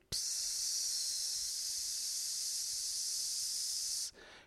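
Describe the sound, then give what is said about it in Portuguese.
A voice makes a long, steady "shhhh" hiss for about four seconds, imitating a trickling stream of water; it starts abruptly, stays loud and even, then cuts off. “Um, pá, passo e de repente começo a ouvir tipo um som do riacho, que é.”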